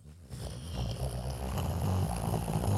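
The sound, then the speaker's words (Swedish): A voice imitates a deep, dull rumble with a low, steady, growling drone that swells slightly and holds for nearly three seconds, fairly loud, with no words spoken. “Eh, och sen så hör vi bara ett muller, väldigt dovt såhär.”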